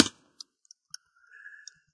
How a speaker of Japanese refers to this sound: 今全然しょうがない話しますけど、こう、メモしておこうと思ってタイピングしている。タイプしてる。